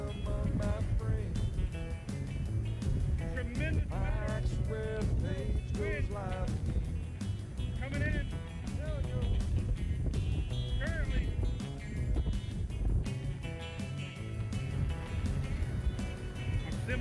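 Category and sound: nature, strong wind gusts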